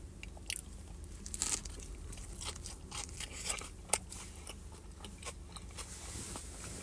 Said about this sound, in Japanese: 真っ赤っすね。このジュレが。マヨネーズとか使ってんのかなこれ。咀嚼音がしますんで。すいません。